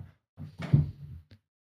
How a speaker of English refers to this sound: Can you hear? Meow. Meow. Can you hear him trying to open the door? I shouldn't have to lock my cat out of the office.